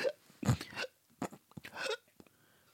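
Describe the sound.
A person imitates the gasping of a man being beaten in the street: a series of ragged, strained breaths in uneven bursts, fairly loud, with short pauses between them and no speech.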